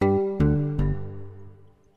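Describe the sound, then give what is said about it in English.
Three bright chime notes struck in quick, even succession, their ringing tones blending and slowly fading into a long decay. No voices are present. “I'm going to do the chimes again.”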